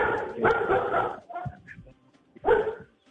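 Dogs bark loudly: a long run of overlapping barks, a few quieter yips in a brief pause, then another sharp burst of barking.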